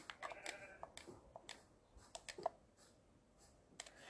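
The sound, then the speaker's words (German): Faint, short bleats of goats in a video game come and go amid a steady patter of sharp clicks like keyboard typing, all fairly quiet, with no one talking. “Da kommen mir jetzt auch diese Ziegen vor.”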